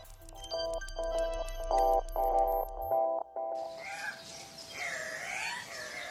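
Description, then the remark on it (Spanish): A series of pulsed electronic tones gives way to harsh, squawking Andean cock-of-the-rock calls, repeated several times over a noisy, hissing background. The calls are fairly loud. “Pero qué especie de pájaro es ese. ¿Cuál? Nunca lo había visto. Le dicen el gallito de las rocas.”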